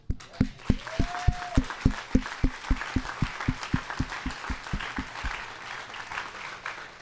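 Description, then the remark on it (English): An audience claps together in a steady, even rhythm, with many hands striking on each beat. A brief high whoop rises early on, and the clapping gradually softens and loosens toward the end. “Can we clap?”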